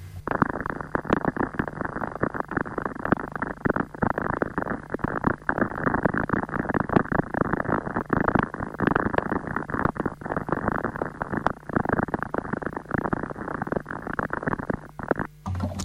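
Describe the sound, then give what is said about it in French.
Radio waves from lightning in very intense storms, converted into sound: a steady, fairly loud rumbling static packed with dense crackles and sharp pops, running unbroken for about sixteen seconds with no voices. “Et on peut convertir les ondes radio liées aux éclairs en son.”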